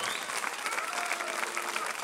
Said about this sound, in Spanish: Aplausos aquí, aplausos allá. Eh, esa ceremonia previa fue lo máximo